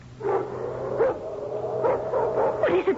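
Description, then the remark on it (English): Several large Doberman pinschers, attack dogs, bark and yip in a continuous, overlapping chorus, fairly loud, with a steady low hum underneath. “Hey, hey, those are Doberman pinschers.”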